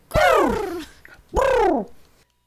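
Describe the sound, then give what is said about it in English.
A voice imitates a chocobo bird's squawk twice, loud: two drawn-out, falling 'kweh'-like calls separated by a short pause. “I was gonna say I can't make a chocobo sound. It's more of yeah.”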